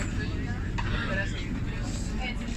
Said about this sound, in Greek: Βρίσκομαι μέσα στο τραμ και ακούω τον κόσμο γύρω μου. Είναι Σάββατο βράδυ, αγόρια, κορίτσια, ε, μια ατμόσφαιρα πολύ χαροπή ε, και αρκετά ανέμελη. Ακούω συνέχεια μου είπε, του είπα, μου είπε, του είπα και διάφορα άλλα πράγματα ουσιαστικά ακατανόητα.